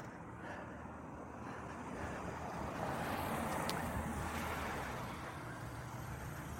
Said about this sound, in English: And it turned out that back on Cole Road again, you can hear the cars.